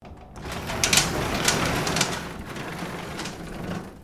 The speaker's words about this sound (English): the sound that welcomed him to his only home was the sound of an overhead door echoing off the cold concrete floor.